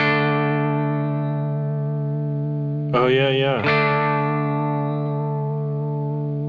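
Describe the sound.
A steady, buzzy synth tone holds throughout, and for just under a second near the middle its pitch wobbles in a quick vibrato before settling back. A voice briefly speaks over it.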